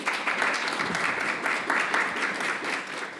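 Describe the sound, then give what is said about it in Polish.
An audience applauds steadily, a dense wash of many hands clapping at a moderate level with no voices over it, holding even from start to finish. “wielkie brawa.”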